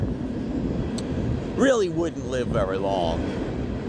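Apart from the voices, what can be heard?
train passing by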